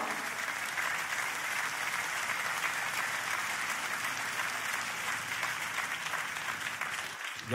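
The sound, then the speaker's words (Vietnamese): An audience applauds a speaking pastor steadily, a dense wash of many hands clapping at an even volume throughout, ending with a sudden louder burst at the very end. “bạn đang vỗ tay cho tôi, nhưng tôi đang nói điều này với các bạn.”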